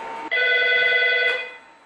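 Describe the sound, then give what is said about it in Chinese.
A police station telephone rings with a loud, steady electronic trill of layered high-pitched tones, one sustained burst that cuts in abruptly and then fades away, with no talking. “此后，接听丢失三元催化器的报警电话就不再是偶然。”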